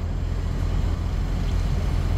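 A steady, low engine rumble and road hum fill the cabin of a moving car, constant and moderately loud with no voices, like the muffled drone heard from inside while driving.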